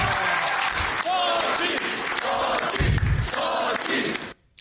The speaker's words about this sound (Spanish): pues ahí está, entre porras, gritos y aplausos, así, así apoyaron ya los amarillos, los del Sol Azteca, a Xochitl Galvez.